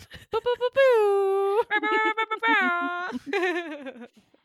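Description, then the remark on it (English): A voice imitates an air horn: a few short bursts, then three loud, sustained nasal honks, the last wavering and trailing off. “Yeah, if I had um sound effects, I'd put an air horn in.”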